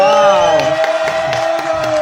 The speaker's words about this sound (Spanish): De pie, de pie, gente, un aplauso. un aplauso.